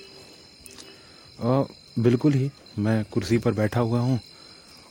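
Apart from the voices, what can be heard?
crickets chirping at night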